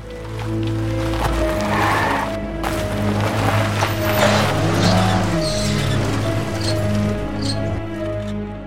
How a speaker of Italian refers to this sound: Poi con passo svelto si avvia verso un'alfetta di colore scuro che lo attende con il motore acceso. Sale dalla parte del passeggero e si allontana assieme al suo complice.